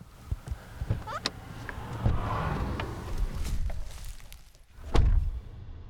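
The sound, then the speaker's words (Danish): A car approaches outdoors on the way down to a beach shoreline, its low engine and tyre rumble swelling gradually, with scattered clicks and knocks and a sharper thump near the end. “Nu kommer der en bil.”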